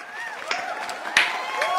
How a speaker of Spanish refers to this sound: Aplaudimos entonces.